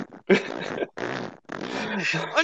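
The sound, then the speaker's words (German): A fairly loud fart-like squeak from a headset being flipped up, sounding in three raspy, sputtering bursts separated by brief pauses. “Ach, ich habe das, so, das, ich hab das so hochgeklappt und dann macht das halt so.”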